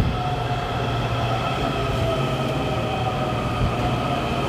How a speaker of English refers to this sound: here is my train. It's two minutes early. Glad I am too.